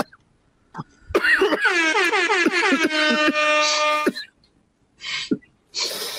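A loud DJ air horn blares in a rapid series of short, stuttering blasts that end in one long sustained honk, followed by a few brief breathy noises.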